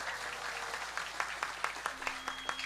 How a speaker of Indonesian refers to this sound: Yo tepuk tangan yang meriah.